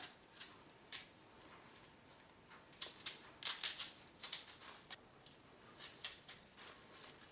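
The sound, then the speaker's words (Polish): A potato being peeled with a spiral motion around it: quick, crisp scraping strokes of a blade come in an irregular series, some sharper than others, with brief pauses in between and no talking. “Ja ziemniaki staram się ubierać spiralnym ruchem dookoła. Wtedy najłatwiej jest mi upilnować żebym obierała je miejsce za miejscem.”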